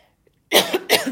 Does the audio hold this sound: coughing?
yes